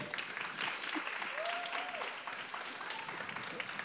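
Steady applause from an audience for a trio of baritone violin, voice and guitar at a festejade: a dense wash of many hands clapping at an even, moderate level throughout, with a faint whistle or cheer rising briefly in the middle.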